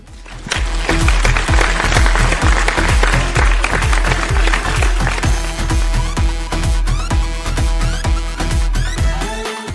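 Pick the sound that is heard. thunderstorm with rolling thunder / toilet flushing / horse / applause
applause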